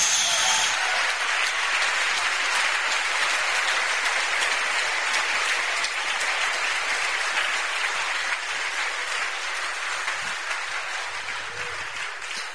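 Sustained applause to God from a church audience, a dense wash of many hands clapping steadily for about twelve seconds, loud throughout and fading slightly at the end, with no voices over it.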